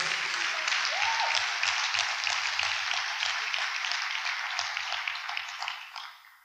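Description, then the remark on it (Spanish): A crowd breaks into sustained applause for God, a dense wash of many hands clapping steadily, staying loud before tapering off at the end, with a faint murmur of voices underneath. “No sé si tiene sentido, pero dale un aplauso a Dios por eso.”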